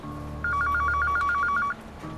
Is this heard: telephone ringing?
yes